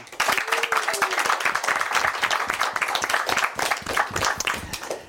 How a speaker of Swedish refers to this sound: En stor applåd och välkommen till dig.